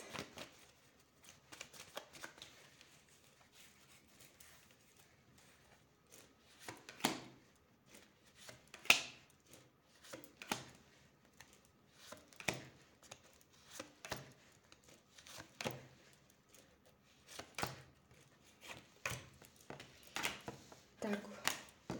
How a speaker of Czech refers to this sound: Já už se dívám na vaši fotku, míchám to karty a podíváme se teda uh, znovu na ten partnerský vztah.